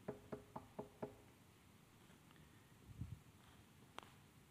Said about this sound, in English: And then all of a sudden, there's a knock at the door.